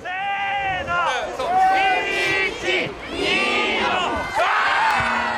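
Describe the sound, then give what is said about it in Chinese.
A crowd shouts and cheers in overlapping bursts as men toss newly married grooms down a snow-covered slope at the traditional groom-throwing festival in Tokamachi, Niigata, held every January 15 in heavy snow; many voices rise and fall in loud, high-pitched whoops and yells without a pause. “几名大汉一同将男子举高高，扔下覆满柔软白雪的斜坡，一旁的民众也跟着发出阵阵欢呼。”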